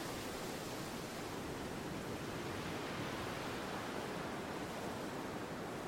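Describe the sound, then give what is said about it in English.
A steady, dense roar of surf churning continuously and breaking towards a beach in Scotland in wild, windy, stormy weather, with no distinct breaks between waves, like rough sea. No one speaks. “White surf taking to the air as the prancing horses stampede towards the beach.”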